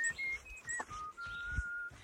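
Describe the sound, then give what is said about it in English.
Someone whistles the piano part of Randall Thompson's setting of Robert Frost's The Pasture, a tuneful melody of sustained, shifting pitches, clear, with a few quick note changes and a long held tone near the end, over faint outdoor background. “I whistle the piano part, then sing the last line I shan't be gone long.”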